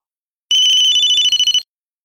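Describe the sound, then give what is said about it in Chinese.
A telephone rings at a police station at night as a rich man calls, with a bright, steady electronic tone pulsing in a quick trill for about a second, loud and alone, then cuts off abruptly. “这时，富翁打来电话”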